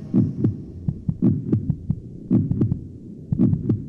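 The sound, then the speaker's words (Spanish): A steady heartbeat thumps in clear lub-dub pairs, about four beats over a few seconds, deep with a soft low hum between the beats. No one speaks. “¿Será por eso que los latidos del corazón son tan importantes para los poetas?”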